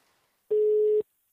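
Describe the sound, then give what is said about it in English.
A single steady telephone ringback tone of an outgoing work call made from Austin sounds once, about half a second long, loud, with a flat electronic pitch and silence on either side. “I'm in Austin for the film festival, but there's one work phone call I have to make.”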